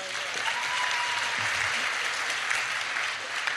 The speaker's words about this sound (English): First of all, she ain't do nothing yet. Watch y'all clapping for her.